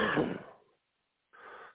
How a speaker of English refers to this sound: Just cough. Deep breath and cough. Deep breath and cough is how we do.